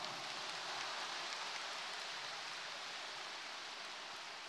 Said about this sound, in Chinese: 鼓掌。